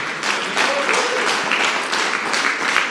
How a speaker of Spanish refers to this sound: Aleluya, denle un aplauso fuerte al Señor.